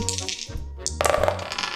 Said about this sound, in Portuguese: Vou começar a jogar os dados. Primeiro para mim.